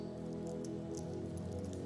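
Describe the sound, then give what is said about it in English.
A roomful of people at a church communion service peeling open small prepackaged communion cups, producing a dense, steady patter of soft plastic crackles and snaps over a low, sustained musical hum. “Will you open your communion elements?”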